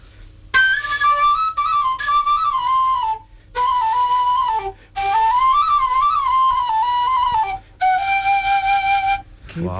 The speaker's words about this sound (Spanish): bastante modesto el, el hula hoop con agujeros suena así